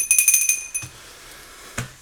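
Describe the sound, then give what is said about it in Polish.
A small handbell rings rapidly for about half a second, a quick run of bright, high, metallic strikes, followed by quiet room tone and a couple of soft thumps. “Dzwonimy kolego.”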